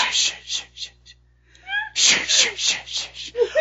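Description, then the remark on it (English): A voice imitates a whispered horror-movie sound effect: a rhythmic run of sharp, breathy hissing bursts. The run breaks off with a brief pause and a short voiced sound, then resumes. “Can you make a movie without that sound effect?”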